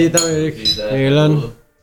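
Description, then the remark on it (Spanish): Glasses clink together in a toast, a couple of bright ringing taps, mixed with overlapping cheerful voices. “Salud por esa sensemaya, está fantástico.”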